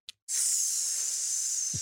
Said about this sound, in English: Fred steps forward and begins to open the chest. Suddenly, a loud hissing sound fills the air.